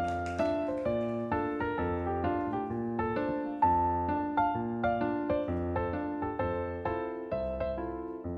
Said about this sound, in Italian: Infatti questa rubrica si chiama... Ra- eh, mi racconto il quadro ti racconto un quadro e questa è la sua sigla.